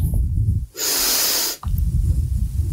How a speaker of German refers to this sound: Tiefe Atmung.